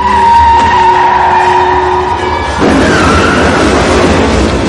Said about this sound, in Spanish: Argyle enfila la limusina contra el costado de la furgoneta y aprieta el acelerador